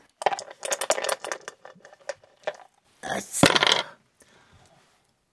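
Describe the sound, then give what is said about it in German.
Clattering rattle of two dice shaken in a hand or cup during a board game, a quick series of sharp clicks, then a brief tumble and settle as they land showing a five and a six; a voice murmurs briefly. “Du darfst noch einmal würfeln.”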